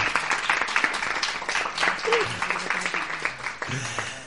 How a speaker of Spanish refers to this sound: Este era el aplauso de jóvenes participantes en este programa, protagonistas una vez más de este espacio